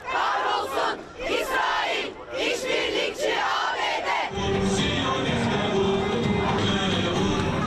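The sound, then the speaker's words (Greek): Thousands of protesters in Istanbul, gathered in front of the Beyazıt Mosque in solidarity with the Palestinians, shout in loud rhythmic bursts, voices surging together in chant-like waves, then shifting into a dense, continuous roar of many people with a low rumble underneath. “Στην Κωνσταντινούπολη, χιλιάδε πολίτε ένδειξη αλληλεγγύη προ του Παλαιστίνιου συγκεντρώθηκαν μπροστά από το τέμενο Μπεγιαζίτ.”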